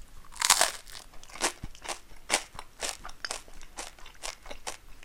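Crisp crunching of someone biting and chewing toasted bread during a lunch break, a loud first bite followed by a steady series of about ten dry crackly chews, with no talking.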